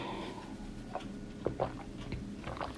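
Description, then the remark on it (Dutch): Someone takes a quiet sip of water, with a few soft wet mouth clicks and swallowing sounds over a hushed background, and no talking. “Ik moet er even wat water pakken trouwens.”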